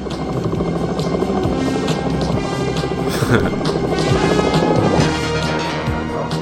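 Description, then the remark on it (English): A helicopter roars loudly, its rotor chopping in a steady, rapid rhythm over a dense engine whine that holds for several seconds. “There's a helicopter involved now?”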